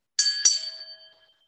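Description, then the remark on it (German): A brief two-note advertisement jingle of bright, bell-like chimes struck in quick succession, their ringing tones lingering and fading out within about a second, with no voices. “Und bevor wir richtig loslegen, kommt natürlich, und da müssen wir ein bisschen seriös sein, die Werbeeinspielung.”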